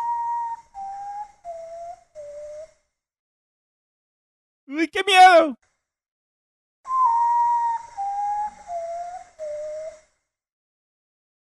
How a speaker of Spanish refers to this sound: Ese es el sonido del cacuy.